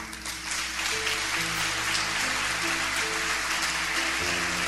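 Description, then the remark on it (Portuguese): An audience applauds Jesus in praise to God for their church, in a steady, dense wash of clapping that holds at an even level throughout, with sustained low organ or keyboard tones shifting underneath. “Eu gostaria que você em louvor a Deus, aplaudisse Jesus pela igreja que você tem.”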